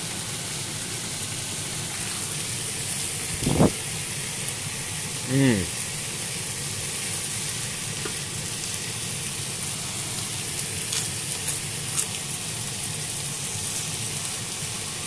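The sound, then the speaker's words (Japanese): A steady sizzle of chicken stir-fried with buna-shimeji mushrooms and cabbage in chicken fat in a frying pan, a continuous hiss as moisture comes out, with a couple of brief knocks or clatters early on. “これ何の音かっていうとお肉を焼いてた鶏の油がいっぱいあの今、あのー、流れてたフライパンの上にぶなしめじとですねキャベツを敷いて鶏肉と混ぜ焼きをしているという混ぜ炒めをしているという状況ですだんだんだんだん水分が出てきて音がしてきた”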